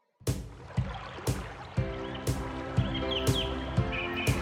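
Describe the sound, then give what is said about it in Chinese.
Small birds in trees chirp and twitter in spring in short, high squiggles, mixed under a steady backing track with soft rhythmic thumps roughly twice a second and sustained low tones. “春天来啦，春天来了，树上的小鸟们叽叽喳喳唠叨个不停，好像它们从来没有经过春天，又好像春天是被它们喊醒的。”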